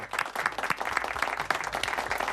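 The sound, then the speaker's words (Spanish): A burst of applause from a group, dense overlapping claps forming a steady crackling wash that holds at fairly even loudness for a couple of seconds, with no talking. “Claro que sí, un aplauso.”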